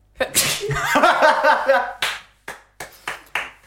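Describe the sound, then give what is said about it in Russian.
A loud, drawn-out sneeze with a breathy burst and voiced tail, followed by four or five sharp, evenly spaced hand claps. “Вы так мило чихнули.”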